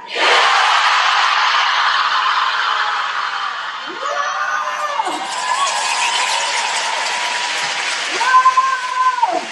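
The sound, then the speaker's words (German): A large crowd roars loudly and continuously, a dense wash of cheering and shouting with a few sustained whoops and yells rising above it toward the end. “Ich habe nicht laut genug gebrüllt und wisst ihr was?”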